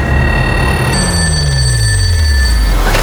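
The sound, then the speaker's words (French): A phone rings with a sustained, bright electronic tone over loud rumbling background noise, while a low tone slowly slides downward underneath; no one speaks. “Le téléphone ne sonne que très rarement.”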